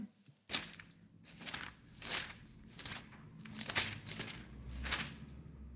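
Pages turning one after another, with about six crisp paper rustles in a steady rhythm, fairly quiet, and no talking.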